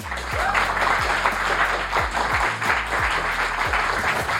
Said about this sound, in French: Et ce soir, à l'occasion du, débar du, démarrage depuis hier de la saison 7 du Vortex, je vous demande un tonnerre d'applaudissements pour Ronan et Charlotte.